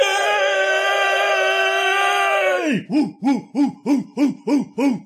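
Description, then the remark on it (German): A person cheers away from the microphone: a long, high, held cry breaks into seven quick rhythmic whooping hoots, loud and alone with no talking. “Ich könnte auch jubeln.”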